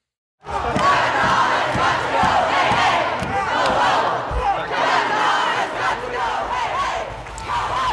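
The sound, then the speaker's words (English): A large crowd of protesters gathered at the doors of the Supreme Court during the Brett Kavanaugh hearings shouts and yells together in a loud, continuous roar, many voices overlapping with rhythmic surges, chanting and crying out without pause. “These are live images, folks, at the doors of the Supreme Court, where you can see protesters have gathered.”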